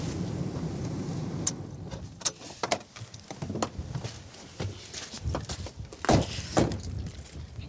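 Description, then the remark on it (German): Car keys jangle in an ignition with a series of short, bright metallic clinks at irregular intervals, over a low rumbling background inside a vehicle on the Hallig Langeness, Germany. “Den Schlüssel lässt du auch stecken?”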